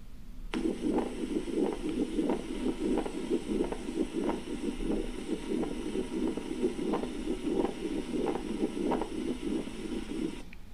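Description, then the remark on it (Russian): A pericardial friction rub heard through a stethoscope: a steady series of rough, scratchy, grating beats in a quick regular rhythm over a low rumbling background, with no talking. “Поехали, шум трения перикарда.”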